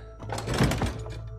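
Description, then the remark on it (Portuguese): Rodolfo opens the door of his lodging house with a single dull thunk, a broad low-heavy knock that swells and fades within about a second, with no voices. “Vocês se aproximam então da casa do alojamento de Rodolfo e ele abre a porta.”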